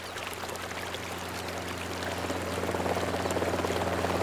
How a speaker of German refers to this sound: Warum dann nicht einfach die eigenen Freunde mit einem Hubschrauber herbestellen?